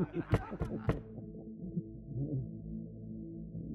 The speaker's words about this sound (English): The gun slides easily from my pocket, and holding it tight in my hand, I use it to tap on the door.